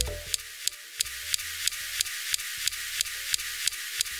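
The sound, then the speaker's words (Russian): Sharp clicks, each a flash of a Mars rover's laser instrument that analyses the chemical composition of Martian rocks, heard through the camera microphone about 2 metres away at the other end of the rover, repeat at a steady pace, roughly three per second, about a dozen in all, each a brief crisp snap over a constant airy hiss. “Вот эти щелчки – это вспышки лазера – Поскольку установка располагается на другом конце марсохода, то между микрофоном на камере и, собственно, этой лазерной установкой примерно 2 метра расстояния.”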